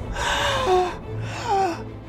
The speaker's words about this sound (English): At once, the angel struck Herod down. The people gasped.